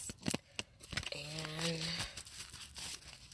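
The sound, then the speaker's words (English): Papery rustling and sharp flicks of a deck of tarot cards being shuffled, in quick irregular bursts, with a brief murmured voice partway through. “Okay, so I'm going to shuffle this uh, three more times”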